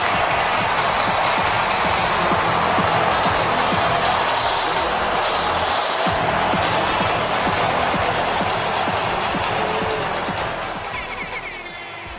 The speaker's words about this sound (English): The crowd of 52,000 plus went absolutely bananas bet you did. you bet you did. A little club horn action in there. What you didn't hear was 52,000 plus people chanting Freddie, Freddie.